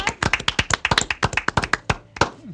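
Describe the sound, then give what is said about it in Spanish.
Applause on a radio show welcoming a doctor as guest: quick, uneven hand claps with sharp, crisp slaps overlapping for a couple of seconds, thinning out slightly toward the end. “Con un aplauso, doctora.”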